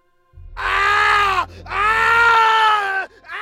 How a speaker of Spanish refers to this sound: El grito que provino de la casa mató el romanticismo y nos puso en alerta.